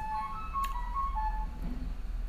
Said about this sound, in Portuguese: Espera só o carro passar, né?